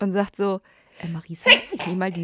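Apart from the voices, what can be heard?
sneeze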